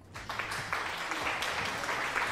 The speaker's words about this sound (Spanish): ¡Bravo! Ya me vale madre yo ya aplaudo.